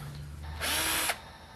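A power drill bores pilot holes into wood before lacquering, in one short, steady burst of about half a second, a bright whining grind, with a low hum before it starts.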